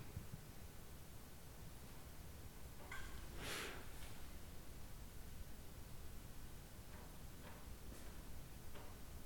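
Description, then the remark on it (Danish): Wind blows as a steady hiss while plastic sheeting gives one crackling, rustling rattle, followed by a few faint flaps. It sounds fairly quiet, and no one speaks. “Kommer den der lyd igen på det der plastik?”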